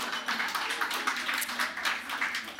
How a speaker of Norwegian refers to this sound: Det er verdt en applaus. Nesten, nesten tatt hovedfag,